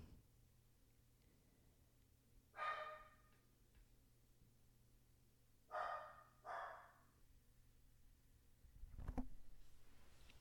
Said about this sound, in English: My dog's barking.